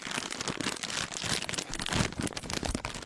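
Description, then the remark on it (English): A plastic bag of peanuts is torn open and crinkled, a steady burst of crisp rustling and crackling that lasts a few seconds, with no voices. “You sit down at your seats, rip open a bag of peanuts,”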